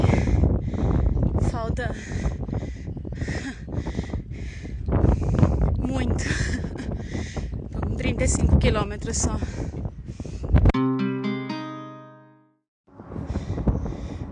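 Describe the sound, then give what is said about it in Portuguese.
Strong headwind in a sunny, hot desert buffets the microphone with a constant low, roaring rumble while a man talks over it, then it briefly gives way to a steady droning tone before the gusting returns. “E hoje tá muito forte o vento e tá contra”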